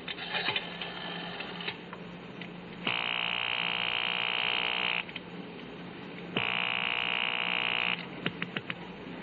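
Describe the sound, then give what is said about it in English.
A telephone rings on the line, heard through the receiver of a payphone at a gas station on the corner: two long, buzzy rings separated by a pause, with faint line noise and clicks around them and no one talking. “I had a phone call to make, the number I'd gotten off the card at Rothman's just before I'd been picked up.”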